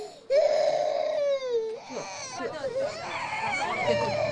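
A baby cries loudly in sustained, high-pitched wails that rise and fall, with short breaks between bursts, continuing through the whole stretch.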